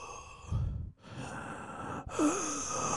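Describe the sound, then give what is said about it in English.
A person imitates heavy, labored breathing: long, breathy, wheezing inhales and exhales, with a brief pause between breaths and no speech. “You ever sat next to somebody that's like really, really big and just listen to them breathe like that, where they're just like.”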